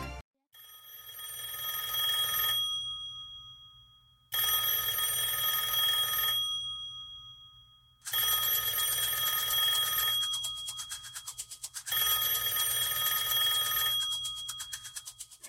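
A telephone rings during an outgoing call to someone in Hong Kong, four long bursts of bright, buzzy electronic trilling, each separated by a short pause, with a steady low hum underneath and no one speaking.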